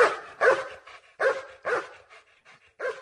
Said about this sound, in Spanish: El ulular de los perros se coló en lo más profundo de sus entrañas.